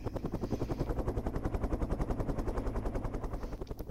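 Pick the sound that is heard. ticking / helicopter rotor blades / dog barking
helicopter rotor blades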